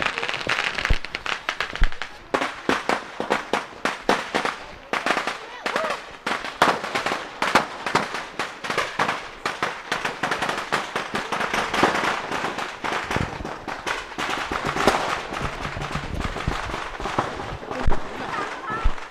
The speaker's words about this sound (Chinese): 原来这阵阵的鞭炮声是代表了碗寨村好几户人家盖的新房已经竖起来了。